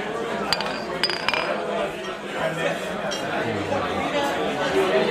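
Several bright clinks of beer glasses holding Paulaner Zwickel ring out in quick succession near the start as they are touched together in a toast, set against a lively background of murmuring chatter.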